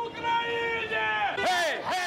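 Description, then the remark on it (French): A crowd in the streets of Tbilisi, Georgia, in the evening sings Georgian songs together in sustained tones, then breaks into loud, rising Ukrainian victory cheers and shouts near the end, with a steady hubbub of many people underneath. “Dans les rues de Tbilissi ce soir-là, résonnent des chants géorgiens et des cris de victoire ukrainiens.”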